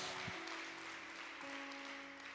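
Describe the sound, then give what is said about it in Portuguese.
An audience claps steadily in applause for God during a sermon, a dense, even wash of many hands that holds at a constant loudness, while a sustained low keyboard chord drones underneath. “Você pode aplaudir esse Deus maravilhoso.”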